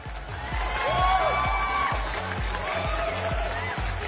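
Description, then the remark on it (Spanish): A burst of crowd applause and cheering, with high whoops and shouts rising over steady clapping and a regular low thump underneath, loud throughout the few seconds. “un aplauso para esa persona que entiende y es, y es comprensible.”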